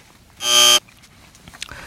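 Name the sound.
buzzer sound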